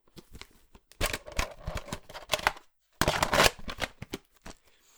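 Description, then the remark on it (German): Plastic handling noises: clicks, rattles and scraping in quick bursts, with a brief pause before a louder, denser clattering passage, as a VHS cassette is handled live on air as a sound effect. “ich mache jetzt hier mal gerade einen Soundeffekt live on air”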